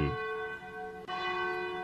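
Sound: cathedral church bell ringing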